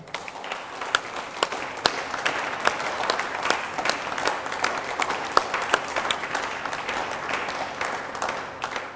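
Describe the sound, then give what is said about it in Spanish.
An audience applauds an archaeologist from Mexico's National Institute of Anthropology and History who led the exploration, steadily for several seconds, a dense wash of many hands clapping with a few sharper individual claps standing out, sustained at an even, moderately loud level throughout. “Él encabezó la exploración y él merece un aplauso.”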